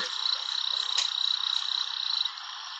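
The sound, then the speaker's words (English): A male torrent frog calls to attract a mate, a high, steady call ringing continuously over the broad rushing roar of a waterfall, with a brief sharper accent near the middle; no one speaks. “The torrent frog.”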